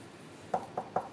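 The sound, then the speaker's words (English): Three quick knocks on wood, the second and third evenly spaced and the first slightly further apart, each a short hollow tap with a mid-pitched ring, standing alone over a faint background hiss. “Knock on wood.”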